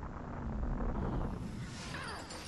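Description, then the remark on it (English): A film sound effect of a massive nuclear explosion involving the Blackbird plane roars and rumbles, its deep low-end blast sustained for a couple of seconds with a rushing, windy whoosh sweeping over it near the end. No voices. “So is that supposed to be like a nuclear explosion?”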